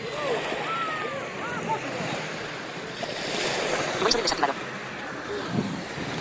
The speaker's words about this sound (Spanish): Bueno, ¿qué les parece si les dejo el sonido del mar por aquí mientras tanto?